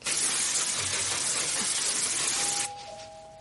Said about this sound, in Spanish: Se pone el sujetador y un jersey de colores. Se rocía el jersey y el pelo con un spray.